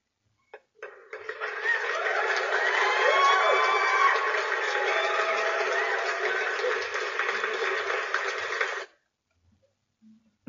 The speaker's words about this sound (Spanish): Por favor, vamos a despedirlos con un fuerte y merecido aplauso.